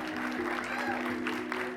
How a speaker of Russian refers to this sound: Ты слушаешь в толпе выступления, каждый из поэтов театрально читает стихи, вызывая выкрики и бурные аплодисменты.